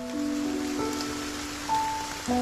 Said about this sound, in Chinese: 所以我特地选了这一段有雨声的背景音乐。